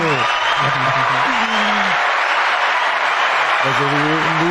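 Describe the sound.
Sustained applause from a crowd at the close of a live broadcast, a dense steady wash of clapping at a constant loud level, with voices speaking intermittently over it.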